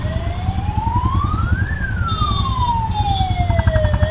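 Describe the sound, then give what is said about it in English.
A police siren wails loudly, one long sweep rising and then falling in pitch, over a dense rumble of traffic and engines with a higher whine in the background. “I think that's the first time we've heard of yeah. police siren.”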